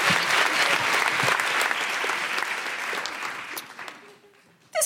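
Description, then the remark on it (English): A crowd applauds steadily, a dense wash of clapping that holds strong for about four seconds before thinning and fading out, with a brief burst at the very end. “Big round applause”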